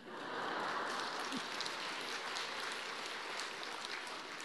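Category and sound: crowd, audience clapping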